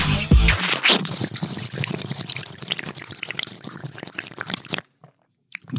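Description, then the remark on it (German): Crunchy food being chewed, a dense run of loud crackling bites and crunches for about five seconds, then a sudden stop into near silence with a brief rustle at the end. “Dann sagt den Gästen, die sollen nicht mal was zu essen mitbringen.”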